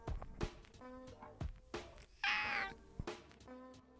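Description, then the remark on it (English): A cat lets out a loud, drawn-out meow, a strained, bright cry lasting under a second, surrounded by soft thumps and faint background noise. “Oh, do you think my cat is a fan of real hip hop?”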